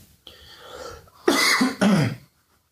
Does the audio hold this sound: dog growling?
no